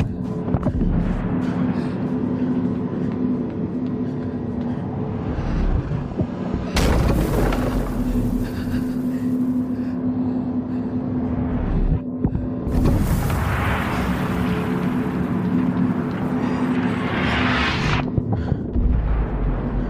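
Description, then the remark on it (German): A video game sound effect announcing a shockwave that passes through a gigantic hall: a constant low, throbbing hum that twice swells into loud, rushing bursts of roaring noise before settling back, with no voices. “Und diese Schockwelle, das ist ein sehr großer Raum, eine gigantische Halle, die wird angekündigt durch einen Soundeffekt.”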